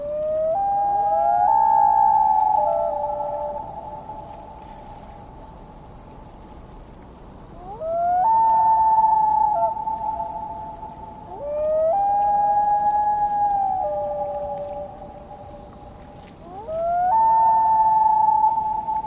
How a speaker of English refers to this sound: You know, I have a favorite bird call in the movie. It's the call of the loon, you know, which is, which is one of these amazing lake birds, and the call is very, very haunting and strange.